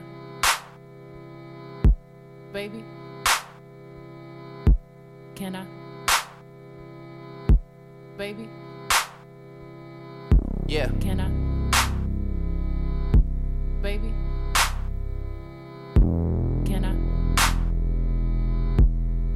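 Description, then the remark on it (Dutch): A hip-hop beat at a moderate tempo, built from short, chopped vocal snippets used as an instrument and repeating over sustained chords, with sharp percussive hits; midway a deep bass layer kicks in and the track grows fuller and louder. “daar hoor je ook inderdaad dat choppen van die stem ook zo goed in voorbij komen. Stemmen als instrument gebruiken.”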